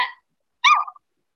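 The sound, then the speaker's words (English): A person imitates a puppy with a short, high yip that dips in pitch, preceded by a brief clipped yelp at the very start; no other talking is heard. “I can do puppy sounds.”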